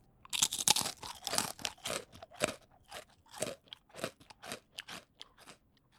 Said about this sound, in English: Munching is eating with this loud chewing sound. What you hear is my teeth crushing the tortellini, and this is called crunching.